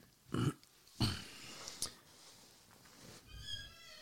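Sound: creaking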